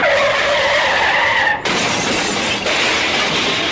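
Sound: car skidding and crashing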